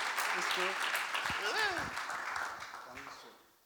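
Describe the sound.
A crowd claps steadily in a dense wash of applause as a welcome for a guest, with a few voices calling out over it before the clapping thins and fades at the end.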